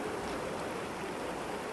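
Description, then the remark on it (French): Steady rain falling on a garage, a dense, even hiss of drops with no breaks, moderately loud, with no voices. “La pluie euh, a commencé à tomber un peu sur le garage.”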